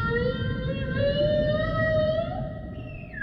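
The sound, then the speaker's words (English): Whale noises: a long, slowly rising moaning call with layered harmonic overtones, sliding upward near the end over a steady low rumbling background. No one speaks. “now we got some whale noises.”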